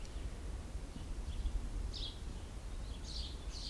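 Faint birds chirp softly in a forest in a few brief, scattered bursts over a low, steady background rumble, with no one speaking.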